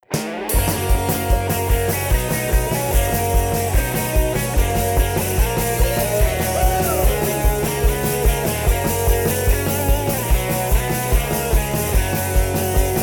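A punk band's new single plays loud: distorted guitars, bass and pounding drums drive a steady, fast beat throughout, with no one speaking over the music.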